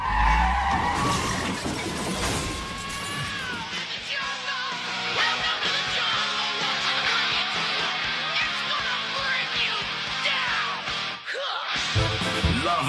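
A car skids with a long squeal of tires, followed by loud crashing and clattering debris, dense and close, with a brief lull near the end before more rumbling impact noise.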